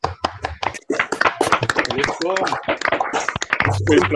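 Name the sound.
hand clapping applause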